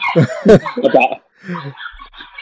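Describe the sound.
A dog gives a few quick, sharp barks in a short burst, then a person talks quietly afterward.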